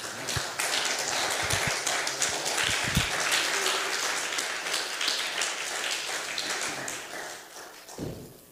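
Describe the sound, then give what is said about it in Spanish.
An audience applauds for the Lord in the morning, a dense wash of many hands clapping at once with scattered sharper claps, holding loud for several seconds before tapering off at the end. “Le damos un buen aplauso al Señor en esta mañana.”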